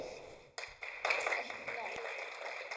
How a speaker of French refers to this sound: ce n'est pas ça que j'ai voulu que vous applaudissiez parce que je sais où je vais en venir.